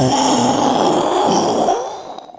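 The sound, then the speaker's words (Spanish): A voice imitates loud thunder with a rough, rumbling roar that holds for nearly two seconds, then trails off into a short fade. “Si oye un fuerte trueno, haga un fuerte trueno, por favor.”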